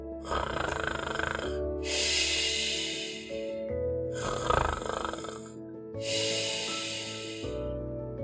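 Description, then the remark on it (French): A small boy fakes snoring while pretending to be asleep, hugging his teddy bear: two exaggerated cycles of a throaty, rumbling snort on the inhale followed by a long, airy hiss on the exhale, with no talking. “Écoute, je ronfle.”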